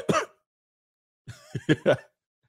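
A single sharp cough, a brief pause, then a rough, throaty run of three quick coughs, fairly loud with no talking around them.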